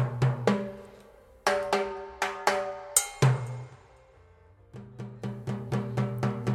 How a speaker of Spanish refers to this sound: Los timbales suenan así.